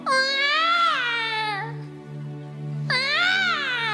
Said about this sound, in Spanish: llora el nene. Y recuerda que se llama Emanuel, Dios con nosotros.